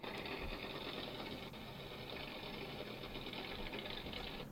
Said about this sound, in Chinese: 对，这个所以这个就是我们在水里面哈常听到的螺旋桨的声音。嗯，OK，那螺螺旋桨它基基本上就是这种啵啵啵啵啵这种这种螺旋桨在打的声音